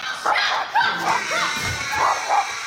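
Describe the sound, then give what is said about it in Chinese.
A dog in a home in the United States barks repeatedly at an eagle that has entered the house, in short, sharp bursts with some yipping and whimper-like tones, amid a busy, noisy background; no one speaks. “接下来更展开一场小狗大战老鹰。”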